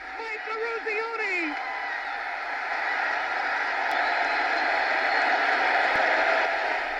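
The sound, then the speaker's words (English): A huge arena crowd at the 1980 Winter Olympics ice hockey game between the United States and the Soviet Union in Lake Placid, New York, roars at the winning goal in a dense, sustained wall of cheering that swells slightly louder over several seconds, with a voice briefly shouting above the din at the start. “That was the sound of Mike Eruzione scoring the winning goal in the famous Miracle on Ice game”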